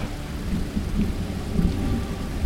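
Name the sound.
thunderstorm with rain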